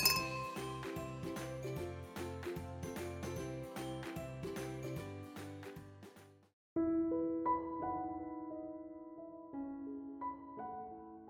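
Glasses clinking in a toast: a busy run of bright, rhythmic clinks and jingles, then a short pause and a few clear ringing glass tones at different pitches that slowly fade. No one speaks.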